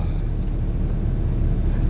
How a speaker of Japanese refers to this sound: そうですねトヨタ4発の 音がいいですね